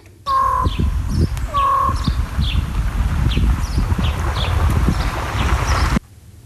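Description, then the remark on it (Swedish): A crow gives two hollow, ringing calls that mimic a raven's croak, fairly loud, over a steady outdoor rumble with small birds chirping repeatedly in the background. “Ja, typiskt för Kråkan att, att äh, ha sånt här ljud, men alldeles tydligt så, så härmar den korpen.”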